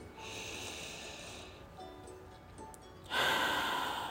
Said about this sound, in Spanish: Inténtalo de nuevo. Inhala.